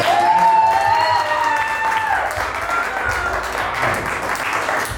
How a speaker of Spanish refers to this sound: De verdad, un aplauso para ustedes.